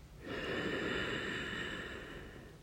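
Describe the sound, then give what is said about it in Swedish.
A long, deep breath drawn in through the nose during a relaxation exercise, filling the chest and belly, a steady airy rush lasting a couple of seconds, fairly soft, with no talking. “Så låt oss bara ta ett djupt andetag genom att slappna av i kroppen, slappna av i magen, andas in genom näsan och fyll upp både bröstkorgen och magen med ny luft.”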